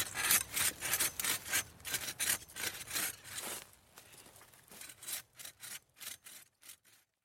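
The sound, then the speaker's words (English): A hand saw cuts down a tree in woodland at Sutton Park, Birmingham, with steady, rhythmic back-and-forth strokes, loud at first, then slowing and softening into shorter, more spaced rasps near the end. “I'm going to cut down one of these trees in the woodland and allow Sutton Park to flourish.”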